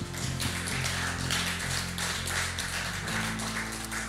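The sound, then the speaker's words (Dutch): A crowd claps steadily for several seconds in applause for Jesus, a dense wash of hand claps, while sustained low keyboard chords play underneath. No one speaks. “Moeten we daar Jezus niet een applaus voor geven?”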